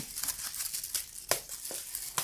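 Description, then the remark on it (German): Chocolate packaging crinkles near the microphone in a quiet, irregular run of sharp, papery crackles and ticks, some louder snaps standing out, with no voices. “hm, ist schöner als Knistern auf, vom, vom Mikrofon.”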